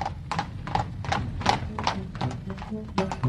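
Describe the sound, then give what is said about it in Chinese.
A horse pulling a carriage runs a lap, its hooves clip-clopping at a steady, even trot, about three sharp knocks per second, over a low rumble of the carriage wheels rolling, with no talking. “马看了这个情形，也不甘示弱的拉起马车，轻轻松松的跑了一圈。”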